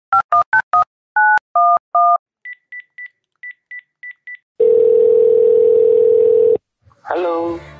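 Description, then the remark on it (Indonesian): A quick run of telephone keypad tones, then several short evenly spaced beeps and a long steady ring tone, before a voice briefly picks up at the end. “Iya deh, gue telepon lagi deh habis ini.”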